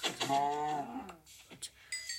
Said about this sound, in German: ist noch eine Kuh, die kann ich auch